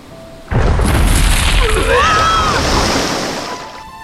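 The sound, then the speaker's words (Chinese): The tail of Madam Big White Whale smashes into a pirate ship: a sudden heavy booming crash followed by a roaring surge of splashing water and creaking squeals, loud for about three seconds before slowly fading. “大白鲸夫人，你尾巴都把海盗船打拉了。”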